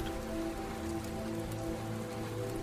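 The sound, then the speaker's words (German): Steady rain patters on a roof in a dense, continuous wash of drops, with a low ambient hum underneath and no voices. “Schließ deine Augen und lausche den Regentropfen, die auf das Dach fallen.”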